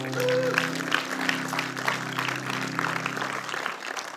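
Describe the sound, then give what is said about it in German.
A church audience applauds a speaker, a dense steady wash of many hands clapping at moderate loudness, with a low sustained tone humming underneath throughout. “einmal einen Applaus hier”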